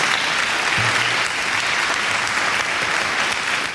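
Sustained applause from a crowd, a dense steady wash of many hands clapping at fairly loud, even volume throughout, with no speech over it.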